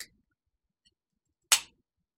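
A sharp, hissing pop as a punch pop drink is opened, a single bright burst of fizz that fades within a fraction of a second, with no talking.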